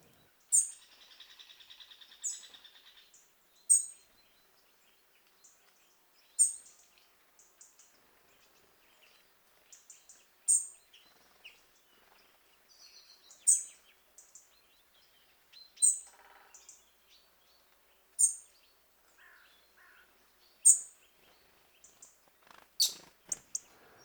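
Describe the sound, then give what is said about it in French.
A robin gives short, sharp, high-pitched alarm calls at the sight of a cat, repeated roughly every two to three seconds, with a faint buzzing trill underneath at the start and no voices. “Petit cri d'alarme à la vue d'un chat.”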